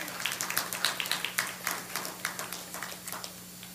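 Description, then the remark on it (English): A church audience claps their hands for the Lord during a morning service, a dense, uneven patter of many claps running steadily for a few seconds over a faint low hum, with no one speaking. “Give the Lord a hand clap this morning, would you?”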